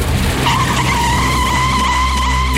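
car tires skidding

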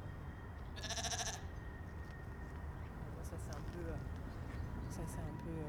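sheep bleating

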